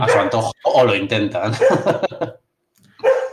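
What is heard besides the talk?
dog barking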